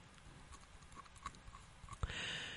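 Faint, wet clicks of a tongue rubbing against a broken tooth, coming irregularly several times, then a sharper knock followed by a soft steady hiss.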